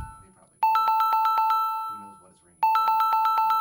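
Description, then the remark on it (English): A telephone rings in two bursts of rapid, warbling electronic trills, loud, with a short pause between them and faint murmuring voices underneath. “We're not sure where the ringing's coming from, guys.”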